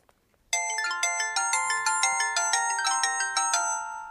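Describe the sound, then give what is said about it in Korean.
A mobile phone ringtone plays a bright, repeating electronic melody of quick, evenly spaced chiming notes, loud and steady for several seconds after a brief silence, with no voices. “아, 오늘따라 왜 이렇게 전화가 와?”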